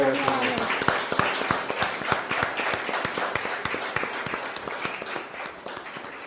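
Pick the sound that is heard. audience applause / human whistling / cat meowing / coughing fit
audience applause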